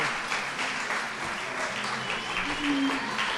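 Steady applause from a small group, a dense patter of claps holding at an even level for a few seconds, with a brief tonal whistle-like sound rising through the middle.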